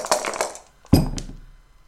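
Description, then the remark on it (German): A quick scatter of small hard clicks and rattles, then a sharper knock as dice rolled in a board game land with a thud and tumble briefly before settling, turning up a six. “Da ja. ist nochmal eine 6 hingehüpft.”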